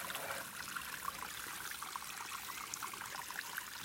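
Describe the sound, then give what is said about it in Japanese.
Spring water bubbling up from the ground at a river's source near the summit of Kamijiyama, near Tsurugi Pass, water that flows some kilometres down to the Isuzu River at Uji Bridge; a steady trickle with small gurgling plips scattered through a continuous bright wash of flowing water, with no voices. “ここは上地山というところの、えー、剣峠に近いところですねもうすぐもう頂上ですコンコンと水がいい音出しながら湧き出てますので何キロ行くだろう1 4 5キロ下っていって五十鈴川のかかってる宇治橋のところまで流れ着きますねこの水が。”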